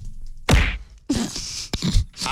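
A series of punches lands with heavy thwacks, four or five hits at irregular intervals, each a loud dull smack followed by a short rustling tail, with no one talking.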